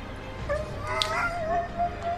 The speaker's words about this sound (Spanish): El perro comenzó a aullar tristemente